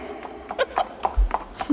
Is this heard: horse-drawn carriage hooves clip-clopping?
yes